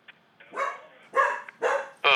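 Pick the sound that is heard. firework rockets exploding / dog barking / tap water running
dog barking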